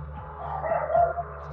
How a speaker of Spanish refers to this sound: Qué miedo que justo cuando dijeron eso el perro así de voy a ladrar. Horrible.